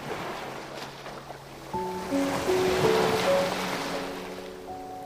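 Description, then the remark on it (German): Soft, steady ocean surf rolls and washes ashore, swelling gently midway, with calm sustained musical tones drifting over it and no voices. “Das Meer, das sich langsam und beständig zum Ufer bewegt und wieder zurückläuft.”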